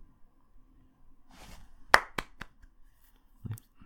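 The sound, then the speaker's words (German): Three sharp, loud hand claps, a kind of clapping called 'Frankfurt applause', ring out in quick, slightly uneven succession, followed by quieter scattered taps and a dull low thump. No one speaks. “Weißt du, in Frankfurt, deswegen heißt es doch auch äh, Frankfurter Applaus.”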